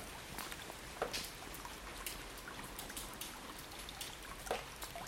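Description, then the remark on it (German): Steady rain falls on a street in the morning, a constant wash of hiss with scattered louder drops and splashes popping out now and then, with no voices. “Nur wenn Regen dazu kam, war es dann doch immer noch das bisschen zu laut.”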